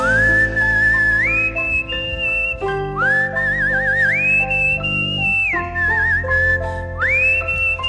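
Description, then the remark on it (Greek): A clear melodic whistle glides and trills over sustained musical backing, rising into long held high notes with wavering vibrato, loud throughout. “Ωραίο αυτό το σφυριγματάκι.”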